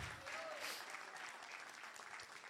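A church audience applauds Jesus steadily, dense clapping from many hands at a moderate level, with a few faint shouts or voices mixed into the applause.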